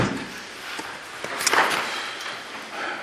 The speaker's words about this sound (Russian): Э, так, закрываем дверь.